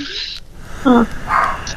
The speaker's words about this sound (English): Look, which dog is barking? I think it's Leia. She likes to get on the podcast. At least once a week.